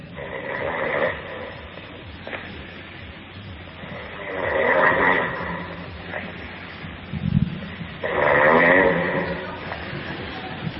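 A man snores in his sleep: three rattling, throaty snores spaced about four seconds apart, each swelling and fading, over a low steady background hiss.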